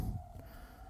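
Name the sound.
ambulance siren passing outside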